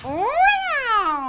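A woken cat attacking a thief's face lets out one drawn-out, harsh yowl that climbs in pitch and then slowly sinks, loud and steady for just over a second with no talking.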